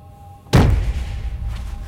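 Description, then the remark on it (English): A single sharp slap of a palm against the reinforced glass window of an office door, loud, followed by a low lingering rumble and resonance as the pane vibrates. “She slapped her palm against the glass again.”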